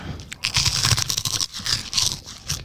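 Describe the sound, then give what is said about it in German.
Chewing of a soft, crunchy puffed snack: a steady run of muffled crunches and squeaky grinding bites, moderately loud, with no talking. “Das ist aber nicht so knusprig. Das ist viel weicher und. Knirscht ein bisschen mehr.”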